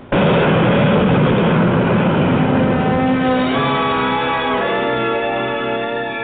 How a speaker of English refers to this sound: You're in one of Eastern's whisper jets. The noisiest section is the pilot's compartment.